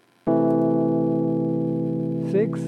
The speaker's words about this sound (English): This will be the sixth chord. So now we're going to go six a minor to C.